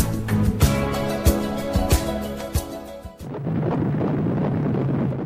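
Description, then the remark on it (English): A muffled, whooshing heartbeat of an unborn baby 28 days after conception, like an ultrasound Doppler recording, with soft rhythmic thumps under a humming tone, then a steady low rumbling swish. No voices. “You are listening to the sound of the heartbeat of an unborn baby just 28 days after conception.”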